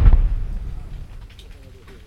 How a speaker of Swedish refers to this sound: nu ska vi mm. se om de skjuter salut här uppe. Nu ska vi höra, klockan är exakt 14.